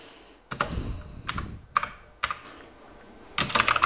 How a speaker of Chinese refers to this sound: 因为我是单手打字，嗯，我这个打字比较慢。